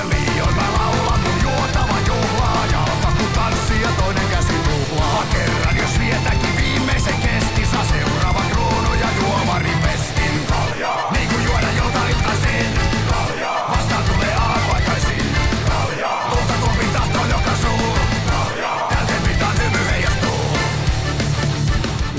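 A Finnish-language cover of a song plays loud and dense throughout, full-band and driving, with a few brief rhythmic breaks in the second half.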